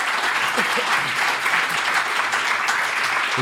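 Steady audience applause, a dense continuous patter of many hands clapping at an even loudness throughout, with no voices standing out.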